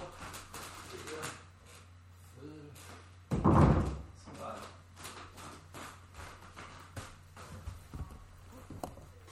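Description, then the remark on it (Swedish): A heavy mirrored wardrobe door swings shut with one loud, solid thud, preceded by faint handling noises and followed by quiet room sounds with soft talk in the background. “Hörde man i sändningen att det var en rejäl spegeldörr som stängdes också då?”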